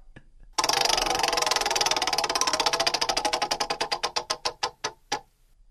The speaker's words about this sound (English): Let's spin the wheel.